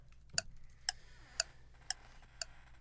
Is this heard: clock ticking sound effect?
yes